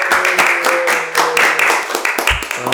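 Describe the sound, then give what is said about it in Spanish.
A short, loud burst of applause for winning the fantasy league season, many hands clapping in a dense, steady patter for a few seconds, with a few voiced whoops or cheers mixed in. “Espérate, espérate, de seguir un aplauso más que ganó el fantasy de esta ¡Eh!”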